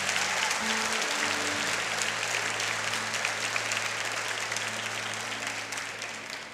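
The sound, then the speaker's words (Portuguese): An audience claps steadily for several seconds, a dense, even patter of many hands that holds at a strong level and then tapers off slightly toward the end. “Pode aplaudir.”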